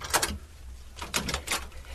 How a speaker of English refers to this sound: Come in. Hurry. Bolt the door again, quickly.